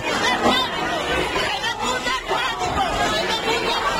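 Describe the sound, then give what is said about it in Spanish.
A dense crowd commotion during the fire of the religious image in the Pollinica brotherhood's procession, with many overlapping voices shouting and murmuring at once, loud and sustained without pause throughout. “Este es el sonido de ese momento angustioso vivido durante el incendio de la imagen.”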